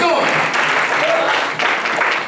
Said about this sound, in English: Come on, that's something we clap for